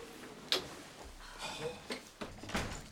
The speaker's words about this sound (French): Je ferme la porte.